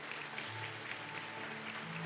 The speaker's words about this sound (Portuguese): Irmãos, nós batizamos 10 pessoas no domingo aqui. Quem pode dar um glória a Deus por isso? Aplaudo o Senhor pela vida dos irmãos que tomaram decisão.